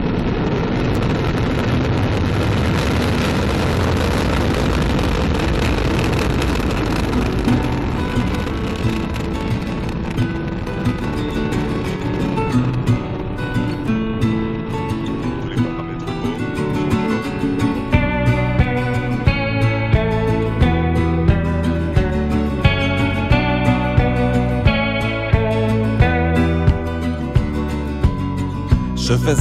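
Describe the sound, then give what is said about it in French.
A loud, continuous rocket-engine roar as the Vulcain engine and EAP boosters ignite at liftoff after a countdown, broad and rumbling, holds steady before music with tones and regular beats gradually rises over it in the second half. “10, 9, 8, 7, 6, 5, 4, 3, 2, 1, top. Allumage Vulcain. Allumage EAP, décollage.”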